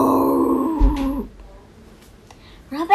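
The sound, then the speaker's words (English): A single loud, drawn-out roar from a human voice imitating a lion. It is rumbling, lasts about a second, and fades into quiet before a breath at the end. “The lion let out a loud roar. Roar!”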